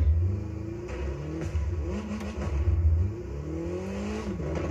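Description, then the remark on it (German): A car engine in a racing video game revs steadily and loudly, its pitch rising and falling as it accelerates and shifts, with a low rumbling tone throughout and no voices. “Okay, da habe ich ein bisschen den Motor aufhören lassen.”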